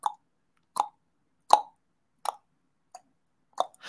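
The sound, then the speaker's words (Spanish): Water drips steadily at night, one clear plop roughly every three-quarters of a second, as in the prison torture of keeping inmates awake with dripping drops; each drop is crisp against otherwise total silence, with one fainter drop among them. “una forma de tortura en las cárceles, por ejemplo, con las gotitas en la noche, gotas para que este, no puedan dormir, este, porque estás en silencio, te quieres dormir, estás escuchando”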